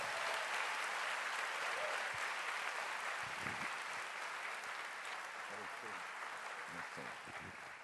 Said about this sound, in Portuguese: Agora, pode aplaudir de verdade com força.